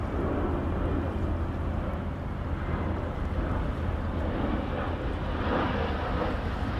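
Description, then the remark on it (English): A steady, deep roar of an airplane flying overhead on its way in to land at a nearby airport, a continuous low rumble that holds at a fairly even loudness throughout, with no voices. “As an airplane soars overhead to land at the nearby airport.”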